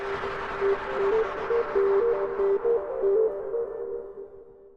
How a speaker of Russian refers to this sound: Ну и вот, кстати, вот этот трек, который у нас здесь то фоном звучит, то не фоном